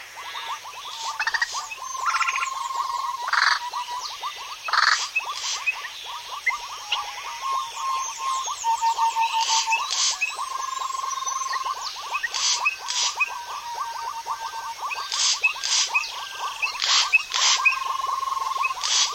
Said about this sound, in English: Before we go, an audio adventure to the wooded swamps of northern Venezuela. Recordist Jean Roché presents the Wonder Frogs.